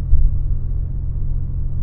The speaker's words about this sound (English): I'm driving in traffic, and uh, so I'm, I'm, multitasking, and it's very difficult for me to do this.